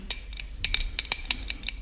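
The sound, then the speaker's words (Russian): A spoon clinks rapidly and repeatedly against the inside of a glass, stirring half a pill into about two spoonfuls of water, with bright, irregular taps that continue throughout, moderately loud, with no one talking. “Так, растворим половинку в этой водичке.”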